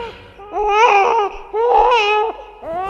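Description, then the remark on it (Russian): In a dramatized scene, a young child cries and wails in two long, rising-and-falling bursts with a short gap between them, loud, with no other talking. “Уберите ребенка.”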